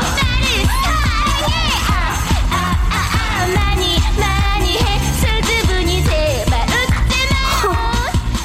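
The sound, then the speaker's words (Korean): A loud group of voices sings and shouts "oppa" together in chorus, with rising, cheer-like calls repeating over a busy, continuous background of crowd noise. “이제는 합창으로 오빠를 외쳐대네.”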